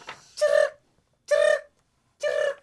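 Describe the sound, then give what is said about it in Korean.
Three evenly spaced, buzzy chirps of a cricket ring out clearly in a steady rhythm with short pauses between them, with no talking over them. “잠깐만 이 소리는 귀뚜라미 아이가?”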